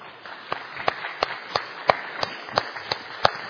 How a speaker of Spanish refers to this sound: Un aplauso.